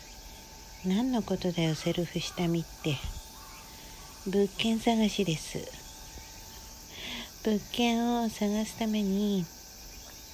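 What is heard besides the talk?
cicadas chirping outdoors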